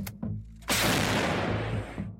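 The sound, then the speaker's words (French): A heavy explosive boom of mortar fire in the war in Ukraine, preceded by a softer thump, followed by a long rumbling roar that slowly decays. No voices are heard. “Un an de guerre, le tir des mortiers et le réveil au son des sirènes.”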